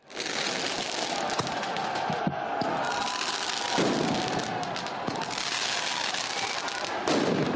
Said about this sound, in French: Mobilier urbain détruit, ou encore cette séquence de jets de mortier sur les forces de l'ordre.